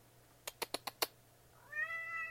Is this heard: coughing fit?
no